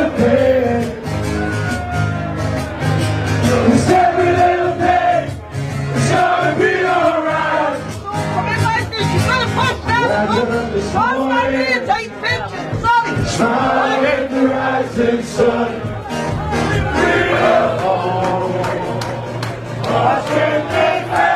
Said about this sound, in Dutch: Wat je hoorde was eigenlijk een eh, wat Nederlands omarmd, hè, door Nederlands en Ajax supporters omarmd liedje. En dan ook weer een Engels voetballiedje. En dat gewoon allemaal in één kroeg door elkaar, toch?